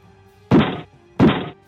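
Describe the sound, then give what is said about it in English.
Two dull, identical thunks of dice rolled onto a table for damage (two d4 plus two) in a tabletop game. Each lasts a moment with a short gap between them, fairly loud against a quiet background with no talking. “I was just setting up the dice.”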